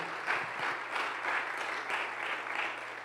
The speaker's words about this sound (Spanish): Denle un aplauso fuerte al Rey.